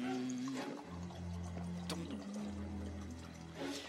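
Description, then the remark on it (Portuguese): Water is poured steadily into a glass for a few seconds, a continuous splashing stream with a faint ringing tone, heard alone without talking. “Quer água gelada ou água.”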